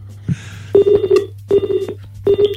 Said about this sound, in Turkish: Yüzümüze kapandı Yok telefon. yok bu hatlarda bugün ama biz zorluyorum ısrarla.